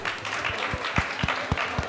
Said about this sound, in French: Il s'agit du projet Mon Terrain. On peut les applaudir fort, s'il vous plaît.